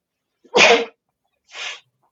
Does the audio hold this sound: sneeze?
yes